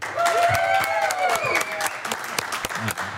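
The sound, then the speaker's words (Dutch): A live crowd at the Museumplein Polo Event in Amsterdam applauds steadily and fairly loudly, dense clapping filling the space, with some voices and a whistle-like call rising above it at the start. “Een, een balletje natuurlijk, paarden, jockeys, veel eten, drinken en natuurlijk live publiek.”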